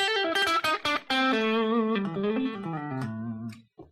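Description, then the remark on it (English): A thin, bluesy electric guitar line with bent, sliding notes played alone, clear, ending with a short pluck after a brief pause. “Sounds super bluesy to me. Yeah bit thin sounding.”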